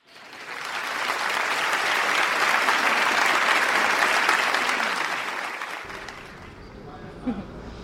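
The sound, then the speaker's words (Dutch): Sustained applause from a large audience after a concert ends, a dense crackling wash of many hands clapping that builds, holds steady, then thins out and fades toward the end. “Toen het concert ophield, klonk er een geluid wat ik wel kon thuisbrengen, maar waar ik niets van snapte.”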